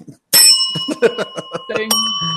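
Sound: bell ringing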